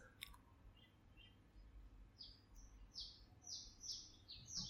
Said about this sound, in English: Noticing the sound on my end, all the birds singing quite loudly today.